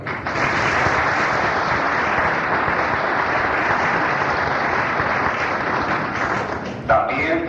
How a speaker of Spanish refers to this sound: en el día de hoy quiere expresar públicamente un especial agradecimiento al señor Roberto Ávila González, presidente municipal constitucional de la ciudad de Veracruz, para quien pedimos un gran aplauso por su colaboración.